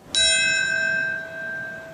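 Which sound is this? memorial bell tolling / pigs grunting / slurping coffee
memorial bell tolling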